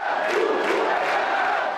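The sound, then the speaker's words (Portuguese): A football crowd cheers in a stadium at a Copa São Paulo de Futebol Júnior (Copinha) match, supporters of Canaã, a debuting team from Irecê in the interior of Bahia, Brazil. A steady dense roar of many voices with swelling shouts, loud and sustained throughout with no pauses. “tinha torcida para o Canaã, time estreante na Copinha.”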